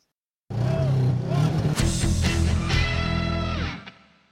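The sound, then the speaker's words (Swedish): A short, loud motorsport jingle: a car engine revs and roars with a distorted music bed, running about three seconds before fading out quickly. “Ja, men du, eh, har vi en jingel på övrig motorsport kanske?”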